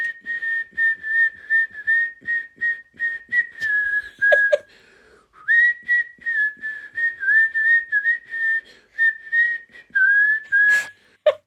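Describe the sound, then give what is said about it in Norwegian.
A single person under anesthesia whistles a tune, the notes wavering and slightly unsteady, with a brief pause midway before the melody resumes, plus a few faint clicks and breaths. “Jeg plystrer det samme begge gangene.”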